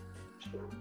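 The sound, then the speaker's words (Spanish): A pet cat lets out a short meow, a brief tonal animal cry lasting under a second with no talking around it. “Eso tienes que cortarlo también, ese es mi gato, a un break.”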